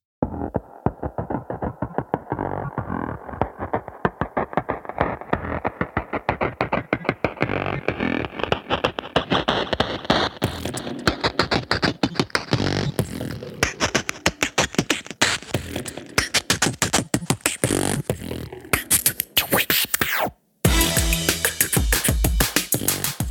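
A loud song built on rapid beatboxed percussion, dense clicks and thumps driving a steady rhythm under a slowly rising tone, with a brief cut to silence just before the end.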